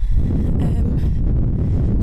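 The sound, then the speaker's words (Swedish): Heavy wind buffets the microphone outdoors in Stockholm in a loud, continuous low rumble that roars and gusts steadily for the full two seconds, with no clear voices. “Oj jävlar nu blåser jag snart bort här.”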